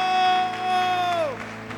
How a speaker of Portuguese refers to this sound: Aplauda o Senhor e adore, aplaudam.